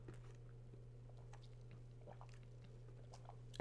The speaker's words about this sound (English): Um, but hold on, we're taking a drink of a soda now.